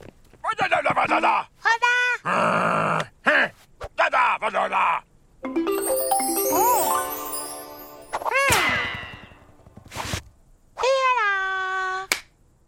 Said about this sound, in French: Il n'y a pas de vraies paroles. Les personnages s'expriment en onomatopée, on y entend surtout des bruitages.